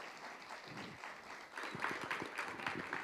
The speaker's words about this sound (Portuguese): Aproveitar suas palmas vibrantes para receber a pastora nessa noite.